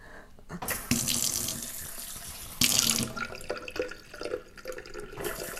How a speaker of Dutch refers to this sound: Ik ben echt de slechtste reclamemaker voor deze koeker. Het is geen koeker. Het is een heet waterkraan van Groen. En hij is vol. Ik stop hem.